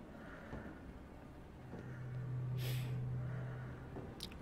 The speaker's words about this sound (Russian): всего минутка ролика, значит, тяжелое дыхание, двери гермошлюза или гермодвери.